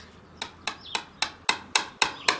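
The flat face of a hammer knocks the flat head of a nail into a wall with eight sharp, bright taps in a steady, fairly quick rhythm, each blow ringing briefly before the next. No one speaks.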